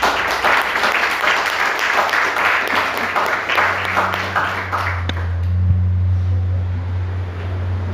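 A crowd at a Portuguese-language church service applauds Jesus, sustained, dense applause, many hands clapping together for about five seconds before it dies away, leaving only a low, steady hum.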